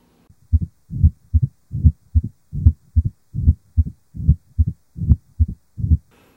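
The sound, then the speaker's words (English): A steady, rhythmic heartbeat heard through a stethoscope at the apex. The low-pitched diastolic rumble murmur of mitral stenosis sounds between the beats, for about ten beats with no talking. “Mitral stenosis reveals a low-pitched diastolic rumble here the best are the apex.”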